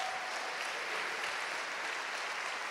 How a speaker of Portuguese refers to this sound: se hoje você abrir o seu coração, se hoje você adorar o Senhor, se hoje você reconhecê-lo como Rei dos Reis, ele virá de glória em glória, de poder em poder, de unção em unção, e você vai aplaudir o Senhor por isso.